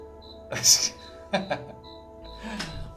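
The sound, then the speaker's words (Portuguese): A cricket chirps in short, high trills repeating at a steady pace, fairly quiet in the background, interrupted by a few louder bursts of voice. “O grilo tá aqui comigo, hein? Ó o grilo cantando.”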